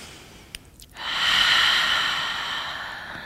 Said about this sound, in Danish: Så tag et par dybe vejrtrækninger her.